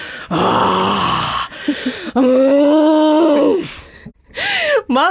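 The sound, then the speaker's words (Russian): A woman on all fours on the floor imitates the deep, guttural groans of a woman having labor contractions: several long drawn-out moaning cries with short breathy gasps between them, loud with no talking. “Тут … встает на четвереньки, на полу, и начинает издавать такие животные, такие классные, такие грудные звуки”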